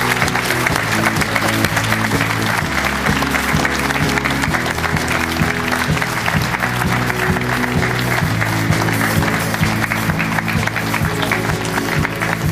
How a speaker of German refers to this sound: Herzlich willkommen, und großer Applaus für Rashid Assouzi, Sportdirektor von Kräuter Fürth.